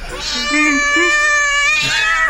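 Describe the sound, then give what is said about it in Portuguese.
A cat lets out a long, drawn-out meow, loud, holding a steady tone before its pitch bends and slides near the end. “O gato vem, né? Fala de novo, gato.”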